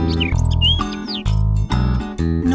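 Quick, bright bird chirps and whistling tweets flit over a full, steady musical backing, several short calls scattered across a couple of seconds, no voices.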